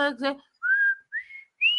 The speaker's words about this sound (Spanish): y, este, que puedan ustedes, o hacer el chiflido este que yo todavía no sé hacer, pero, pero puedo Ah, ese nunca me ha salido. No, no, de, plano chiflar es difícil para mí, ¿eh? es algo complicado.